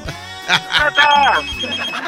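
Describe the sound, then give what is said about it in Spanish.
A telephone on line 2 of a call-in program rings with bright, repeated electronic tones, steady across the short clip, while a voice talks briefly alongside it. “Línea 2, bueno.”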